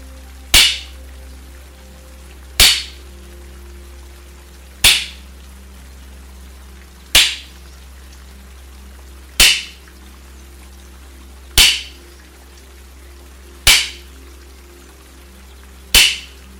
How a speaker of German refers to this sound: ähnlich den Klangschalen aufgenommen, den Ton, wenn die beiden Bambushälften in meiner Hand zusammentreffen.